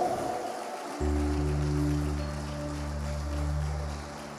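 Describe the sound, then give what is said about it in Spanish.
A church audience in Santa Ana stands and applauds as an offering to God in a steady, dense wash of clapping. About a second in, a sustained low keyboard or organ chord enters and holds beneath it. “Así que póngase en pie, hermano, y démosle la mejor ofrenda de palmas al Dios que nos ha comisionado.”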